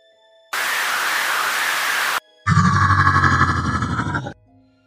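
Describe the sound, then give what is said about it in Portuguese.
A burst of rushing, hissing wind lasts under two seconds, then after a short gap a deep, rumbling growl from inside an entrance follows, loud and sustained with a rough, grinding texture, before cutting off. “E novamente vocês escutam um grunhido vindo de dentro. E dessa vez ele vem com um vento e uma forte presença de Bogan.”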